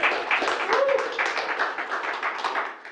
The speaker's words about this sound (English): Give Jesus one more hand clap of praise, would you?